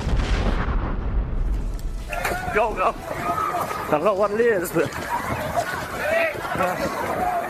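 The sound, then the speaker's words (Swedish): Panicked crowd noise in Times Square as crowds run for safety after hearing what they thought was an explosion: overlapping shouts and screams, hurried footsteps and a rumbling low-end roar, loud and chaotic throughout with several voices calling out at once. “You see there on your screen crowds running for safety after hearing what they thought was an explosion.”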